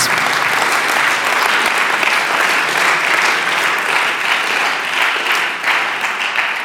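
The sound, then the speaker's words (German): An audience applauds steadily for several seconds, a dense, loud patter of many hands clapping with no pauses and no voices standing out. The applause is for the people watching online via livestream, given at the speaker's request. “Hallo, gebt den Online-Menschen einmal Applaus.”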